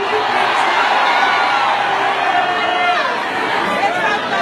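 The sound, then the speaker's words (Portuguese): An audience with raised hands shouting hallelujah together, a dense, loud wash of many overlapping voices, sustained steadily for several seconds without pause. “Levante a mão para dar um grito de aleluia.”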